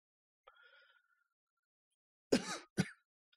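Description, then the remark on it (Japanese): Two loud, harsh coughs in quick succession, after a few seconds of near silence broken only by a faint, brief sound early on. No one speaks. “この咳も本当花粉だと、いや、花粉だったら嫌だなって思いますね。”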